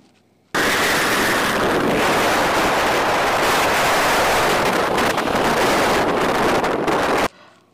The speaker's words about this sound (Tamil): தனுஷ்கோடியில் வீசின கடல் காற்று என் முப்பாட்டை சுவாசித்த அதே மூச்சு காத்து தான்னு உணர முடிஞ்சது இந்த சத்தத்தால்